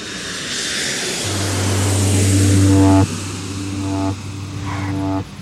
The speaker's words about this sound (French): les roues d'un avion touchent le tarmac de l'aéroport de Biarritz et glissent dans la nuit. Le jet privé arrive de Carthagène en Colombie.